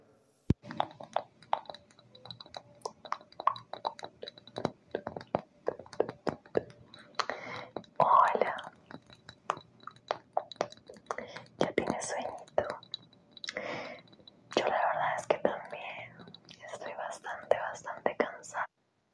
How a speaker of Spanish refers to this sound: No, nomás ahorita sí les quiero poner una demostración pequeñita de cómo para que me refiero a lo que les estoy diciendo que hablan muy bajito, que hacen sonidos. Este, sí, está, está muy interesante, pero sí tengamos mucho cuidado. Ahí les va.